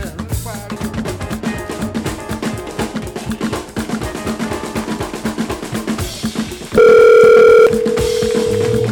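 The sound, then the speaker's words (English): Busy rhythmic music plays, then cuts to a loud, steady telephone dial tone as a call is placed to election winner Julie Briskman. The tone holds for about a second before dropping to a slightly quieter continuous tone until the end. “What we're going to do is get her on the phone.”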